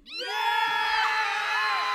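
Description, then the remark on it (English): A crowd cheer sound effect: a crowd erupts into loud, sustained cheering with whoops and yells, swelling quickly from silence and holding at full volume for about two seconds. “I'm upset because I'm I cannot find my crowd cheer. Oh, I found it.”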